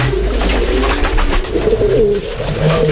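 Several pigeons coo in overlapping, throaty murmurs, fairly loud, a steady soft rumble of calls layered over a background of general noise with no talking.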